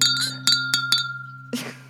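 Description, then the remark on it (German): A champagne flute knocks against a crémant bottle in a quick series of bright, ringing clinks, each tone lingering briefly before a final duller knock. Clear, no voices. “Äh, ich habe mein, meine Sektflöte an meine Cremantflasche gehauen.”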